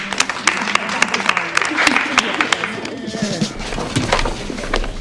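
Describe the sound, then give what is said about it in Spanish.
An audience applauds with sharp, irregular claps that keep going for several seconds, mixed with lively crowd chatter and voices underneath. “Todas nos merecemos un aplauso.”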